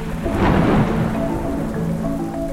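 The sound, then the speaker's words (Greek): Steady, dense rain pours down in Thessaloniki with a low rumble of thunder swelling early on, then settling into a constant wash of falling water, fairly loud, with no voices. “το αεροπλάνο με τον Αμερικανό δημοσιογράφο George Paul προσγειώνεται στη Θεσσαλονίκη εκτάκτος λόγω βροχής”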